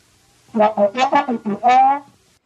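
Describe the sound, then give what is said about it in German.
A voice imitates the muffled wah-wah speech of a cartoon teacher: about six loud, wordless, droning syllables in a quick babbling rhythm, ending on a longer drawn-out wah. “Und das ist, so spricht die Lehrerin.”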